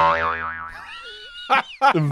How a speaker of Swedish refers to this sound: Boing! Eh, ja, men såhär, eh, cartoons eller vad man ska säga. Ja, ja. Och det, det, här var ju det. Så eh, jag tror det var det här jag tänkte mig någonstans i bakhuvudet. Och det, det är ju kul. Det är ett väldigt roligt ljud är det.